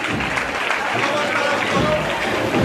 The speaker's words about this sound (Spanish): Un izquierdo, pasito atrás y rompe con la marcha en los aplausos del público enfervorizado en esta calle Torre Cuadrada.